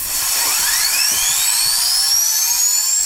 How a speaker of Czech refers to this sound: Už jen bezpečnostní pneumatická lampa, ve které vyrábí proud dynamo poháněné turbínkou na stlačený vzduch. Když se hadička s proudícím vzduchem třeba pádem kamení přeruší, nevznikne jiskra a důlní plyn nevybuchne.